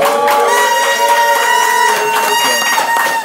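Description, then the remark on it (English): An audience cheers loudly and steadily for a guest who opened a record store at age 19, a dense roar of voices with high shouts and whoops layered on top, sustained without a break for the whole stretch. “Come on, make some noise for that, God damn it!”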